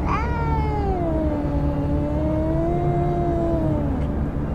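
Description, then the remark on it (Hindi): A boy imitating a cat lets out one long, drawn-out meow, rising briefly then sliding down and holding steady for about four seconds over a low, constant background rumble. “कल तो रह रहकर बिल्लियों की आवाजें भी निकाल रहा था”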